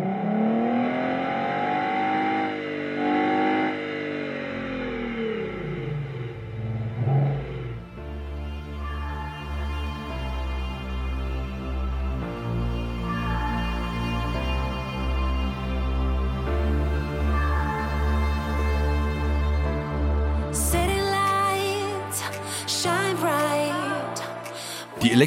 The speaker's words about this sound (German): Wir haben zum Beispiel welche, die sich an Verbrennungsmotoren anlehnen. Wir haben hier den klassischen V8